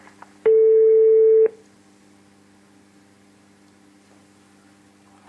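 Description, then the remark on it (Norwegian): A single loud, steady telephone tone sounds for about a second as a call is placed, then cuts off, leaving a faint line hum with no one speaking. “Da ringer jeg tilbake om eh, noen få sekunder.”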